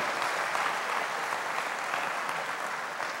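An audience applauds God during a church service, a dense, even wash of many hands clapping at once with no pauses, sustained at a consistent loudness throughout.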